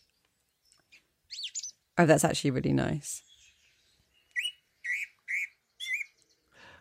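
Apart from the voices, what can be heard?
birdsong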